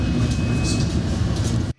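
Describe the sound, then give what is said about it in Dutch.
A loud, steady low-pitched roar of a twin-rotor Chinook helicopter, deep rumbling with a faint throbbing wokka-wokka beat throughout, continuous before cutting off abruptly at the end. “Dat noemen ze in Engeland het wokka-wokka geluid van de Chinook. Karakteristieke geluid.”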